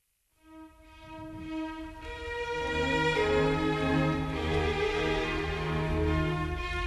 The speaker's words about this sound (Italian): Ma per capire più a fondo ciò di cui stiamo parlando, sentiamo dall'inizio questo secondo movimento della Sinfonia numero 83, come sempre vi seguo durante l'ascolto.